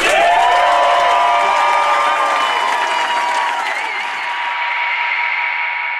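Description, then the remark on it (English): A loud crowd cheers and applauds steadily for about six seconds, with high whoops and yells over a dense wash of clapping that eases slightly toward the end. “Make some noise for Brooklyn's finest,”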